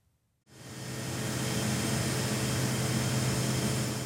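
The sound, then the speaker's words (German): After a brief silence, a gas liquefaction plant at ETH Zürich's Hönggerberg site, which cools helium to minus 269 degrees Celsius, fades in: a broad, constant hiss over a low, droning hum with tonal bands. It stays loud and unchanging, with no voices. “Was hier an der ETH am Hönkerberg brummt und zischt, ist die Anlage, die Gase verflüssigen kann.”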